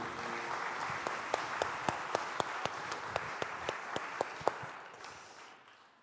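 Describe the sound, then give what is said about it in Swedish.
A church audience at Citykyrkan applauds the worship team steadily, a dense wash of many hands clapping with a few sharper, louder individual claps standing out in a loose rhythm before the applause fades away near the end. “Kan vi ge dem en eh, stor applåd?”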